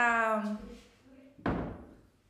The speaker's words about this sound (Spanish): Ya me cerré la puerta.